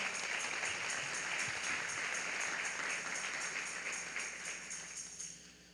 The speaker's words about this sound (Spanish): Dale fuerte las palmas al Señor.